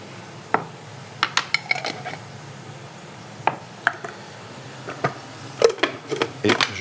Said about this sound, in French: Et donc, je vais rajouter à mes feuilles de menthe deux grosses cuillères à soupe de moutarde à l'ancienne.